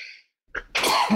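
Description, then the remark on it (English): A single sharp, loud sneeze, preceded by a quick catch of breath and ending in a breathy, hissing burst with no talking. “Excuse me. Uh, Bless you.”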